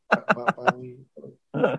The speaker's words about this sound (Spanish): este, mira, imagínate si estoy tosiendo que no me di ni el bourbon de hoy para hablar contigo, me estoy tomando un té de eso te, eh, a raya, baja de categoría.